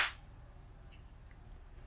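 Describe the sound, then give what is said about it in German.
A single sharp hand clap, made as a sync test between two speakers, cracks out at the very start, then fades into a low, steady background rumble with no talking. “Kann das jetzt sein, dass ich etwa eine Sekunde oder zwei Sekunden vor dir geklatscht habe?”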